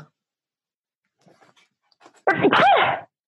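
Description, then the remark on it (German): A dog sneezes once, a sharp, loud snort burst after a few faint snuffling sounds, with no talking. “Gesundheit.”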